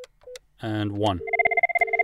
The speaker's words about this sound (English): You can hear the phone dial tone. I'll dial 1001.